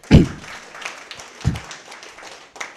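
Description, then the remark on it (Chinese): An audience at an event claps for the event's core members in a steady, crackling patter of many hands, moderately loud, broken by two dull low thumps near the start and middle. No one speaks. “我建议大家给他们一个热烈的掌声。”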